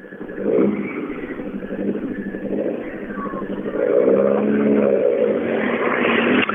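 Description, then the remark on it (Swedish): A Golf rally car's engine revs hard and rises in pitch as it approaches, growing louder into a sustained, raspy roar near the end. No one speaks. “Och låter som det ska, det gör det också.”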